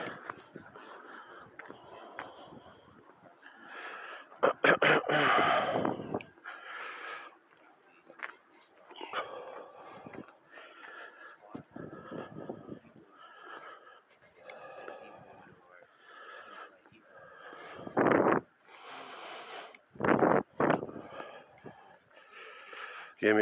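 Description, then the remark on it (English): A little fat dog snorts and wheezes in repeated breathy bursts, a few of them loud and harsh, with a person's voice talking intermittently between them. “That's one little fat dog.”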